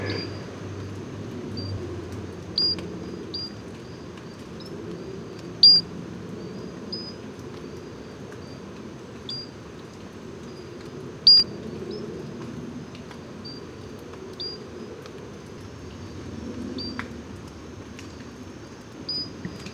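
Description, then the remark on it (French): A tiny Pinchon's robber frog in Guadeloupe National Park repeats short, pure, crystalline high-pitched notes at irregular intervals, fairly faint, over a soft low background hum with no one speaking. “Euh, rencontre sonore aujourd'hui avec l'îlode de Pinchon.”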